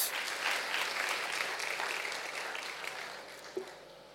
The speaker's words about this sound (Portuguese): Aquele que prometeu, pode aplaudi-lo.